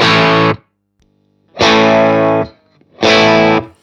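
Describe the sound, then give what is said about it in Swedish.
Distorted electric guitar played through a Marshall amp, switched to from a Vox amp sound, with a crunchy tone plays three loud, sustained chords, each ringing for under a second and separated by short pauses. No voices. “Kan bara gå från det här Vox-soundet till Marshallen igen då.”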